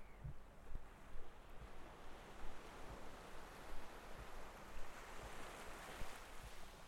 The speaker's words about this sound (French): La marée lance quelques vagues molles sur la grève. Son assourdi de petits coefficients. Sans houle. Sans fracas.